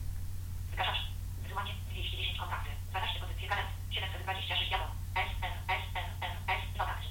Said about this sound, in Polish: Słyszymy, że Telefon nam się jąka. Zobaczymy, czy nam powie, ile rzeczy już pobrał.